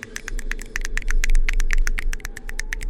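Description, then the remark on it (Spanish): Soft, quick fingertip tapping in a steady patter, gentle radio applause at Radio UNAM, about twenty light clicks over a low rumbling hum, with no voices. “aplausos radiofónicos. Porque no nos gusta pegarle muy fuerte a, los sensibles y, caros micrófonos de Radio UNAM.”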